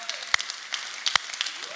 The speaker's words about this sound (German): Erstmal möchte ich es feiern, dass Gestern bei Herz für die Stadt haben sieben Menschen ihr Leben Jesus gegeben. Hey, können wir mal einen Applaus machen für sieben Menschen, die sich bekehrt haben?